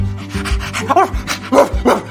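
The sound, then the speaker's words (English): A dog makes a rapid series of panting breaths and short, whiny vocal yelps, with a low rumbling rub in the background and no one talking. “But then you met your stupid dog.”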